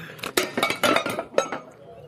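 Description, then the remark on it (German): In a can-shooting game, a tin can is struck by shots, giving a quick, irregular run of sharp, bright metallic clinks and rattles, fairly loud, with a final pair of clanks before it fades out. “Ich habe vorhin schon immer die Wand getroffen. du hast eine Dose kaputt gemacht.”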